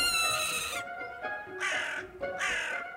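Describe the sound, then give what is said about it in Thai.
A crow caws three times in a harsh, raspy, evenly spaced series, the first call longest, with no talking over it. “กากับเหยี่ยวนั้นเป็นเพื่อนที่รักกัน อาศัยอยู่ที่ต้นไม้เดียวกัน แต่คนละกิ่งเพียงเท่านั้น”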